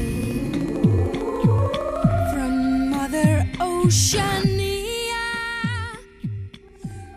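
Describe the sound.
A woman sings a slow, gliding melody over layered sustained tones and a steady, deep throbbing pulse, the music full and close throughout.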